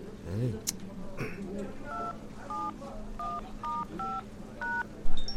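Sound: phone keypad dialing tones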